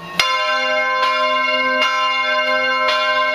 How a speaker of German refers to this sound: Wobei Graz auch anders kann, also durchaus majestätisch beim Grazer Dom. Den sehen wir von hier oben auch sehr schön, zwischen den Häusern der Altstadt so herausragen. Da hört sich das Glockengeleit schon gleich deutlich pompöser an.